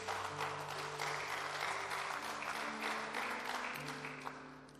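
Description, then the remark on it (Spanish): An audience applauds steadily for Jesus, a dense wash of many hands clapping at once, with a sustained low hum or organ tone beneath; the clapping holds strong then tapers slightly at the end. “Vamos, denle ese aplauso a Jesús.”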